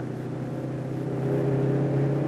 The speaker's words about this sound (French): Voilà 70, troisième. La troisième de cette voiture est prévue pour euh, monter environ à 110, la vitesse chronométrée est je crois de l'ordre de 107 km 500 pour une voiture standard.